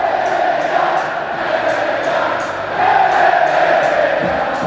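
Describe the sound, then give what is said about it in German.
A loud, dense stadium crowd at La Rosaleda roars continuously, with a sustained mass of jeering, whistling voices that swells slightly louder toward the end: unhappy FC Malaga fans at the final whistle of a 1–2 home defeat to Albacete. “Heimpleite für den FC Malaga. Und die Fans sind sehr, sehr unhappy.”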